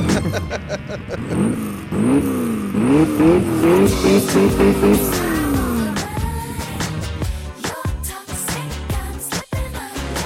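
A MotoGP racing motorcycle engine screams loud, its pitch climbing and dropping in several quick revving sweeps, then giving way to rough, sputtering bursts and sharp cracks toward the end.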